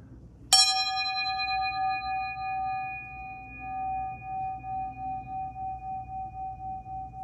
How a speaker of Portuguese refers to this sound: Eu não fazia isso, né? De tocar ao vivo para vocês o sininho.